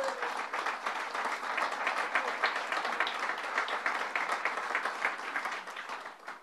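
A crowd breaks into steady applause for Senator Ruth Hassell Thompson, dense overlapping claps filling the air at an even, sustained level for several seconds before easing slightly at the end.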